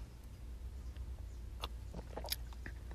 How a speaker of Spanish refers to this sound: Otro sorbo de café que ya me estoy durmiendo.